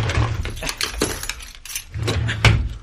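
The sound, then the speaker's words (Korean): Car keys jangle and clink in irregular bursts as they are rummaged out of a drawer in the living room. Bright metallic chimes ring over a low steady hum, with no talking. “어, 차키? 어, 거실 에 서랍에요.”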